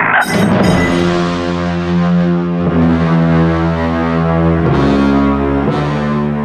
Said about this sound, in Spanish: Una hora más de Don Cheto al aire completamente en vivo y si escucha esta música de fondo, sí, vamos a tener jueves de misterio.